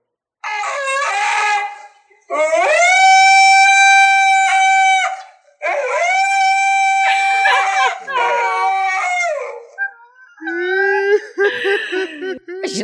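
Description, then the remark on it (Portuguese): A Siberian husky howls and yowls in several long, loud, drawn-out cries with sliding pitch, separated by brief pauses, the last ones breaking into choppier whining sounds. “eu comecei a seguir Instagrams de Husky siberiano. E, meu irmão, eu choro. Eu choro de rir com eles berrando”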